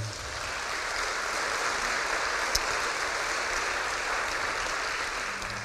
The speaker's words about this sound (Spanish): Tengamos actitud de perdón en el nombre de Jesús. Dele palmas al Señor.